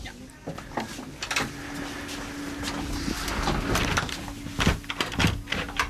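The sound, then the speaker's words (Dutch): Door 1 of a hospital airlock is pulled shut with a few sharp clunks and knocks over a steady low mechanical hum and faint background noise. “Deur 1 is dicht. Nu sta ik in de sluis.”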